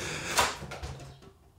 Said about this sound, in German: Drin ist sie. Jetzt hast du die Katze reingelassen und die Tür steht offen.